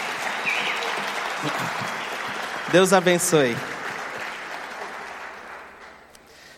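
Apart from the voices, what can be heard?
audience applause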